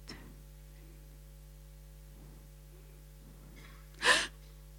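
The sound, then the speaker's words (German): After a few seconds of soft, quiet breathing, a single sharp, startled gasp of fright bursts out loud near the end, a quick forceful intake of air, deliberately performed. “Und wie reagiert jemand, der einen ganz argen Schreck kriegt?”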